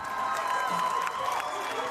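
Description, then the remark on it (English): A large indoor crowd at a home basketball game roars and cheers steadily, half of it assigned to cheer for the visiting Gainesville team: a dense wash of overlapping voices and shouts with occasional sharper whoops and claps. “Half the crowd was assigned to cheer for Gainesville.”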